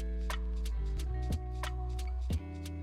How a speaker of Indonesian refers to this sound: TikTok biasa digambarkan sebagai suara jam dinding. Tentu saja maksudnya jam dinding zaman Belanda atau Jepang yang masih harus diputar seminggu sekali atau dua kali dan umumnya memiliki bandul. Atau nama lainnya grandfather clock